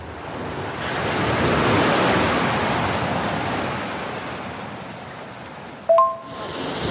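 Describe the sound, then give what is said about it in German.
Atlantic Ocean waves at the Costa de la Luz crash and roar continuously in very windy weather, heard while standing in the sea, a broad rushing surge that swells and slowly ebbs, ending with a brief sharp tonal blip near the end. “Ich stehe jetzt hier im Atlantik, die Wellen tosen, die Kitesurfer sind in der Luft und das ist ein solches geiles, tolles Erlebnis.”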